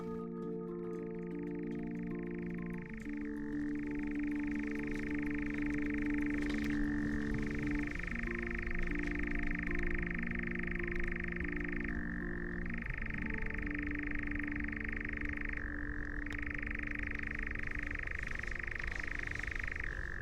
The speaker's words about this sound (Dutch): En dan horen we ineens in de verte de onmiskenbare ratelende zang van een nachtzwaluw.